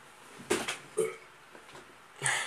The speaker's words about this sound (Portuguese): Tem que arrotar com chocolate agora há pouco. Tô, tá difícil.